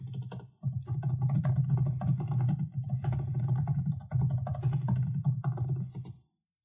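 Steady, rapid typing on a computer keyboard during a live internet search, with dense clicking keystrokes and a brief pause near the start before it stops abruptly.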